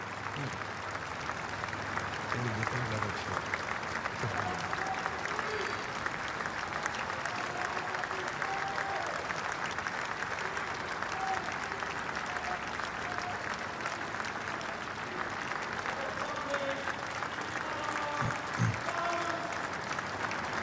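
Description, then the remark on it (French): Steady, subdued applause from a large outdoor crowd of Scots as a transparent hearse carrying the queen's coffin passes, a continuous soft patter of clapping lasting the whole stretch, with faint murmurs and scattered voices underneath. “Voilà cette image euh, puissante de ce corbillard, ce cercueil à l'intérieur, ce corbillard transparent et voilà ces applaudissements euh, contenus euh, des Écossais qui ont beaucoup aimé leur reine”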